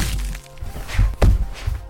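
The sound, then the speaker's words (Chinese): A hard punch to the face lands as the enraged Xiahou Dun punches Cao Cao in the face: a dull, low thud followed quickly by a sharper, louder smacking impact, with no one speaking. “气愤的夏侯惇再也压抑不住心中的悲伤与恼怒，一拳狠狠打在曹操的脸上。”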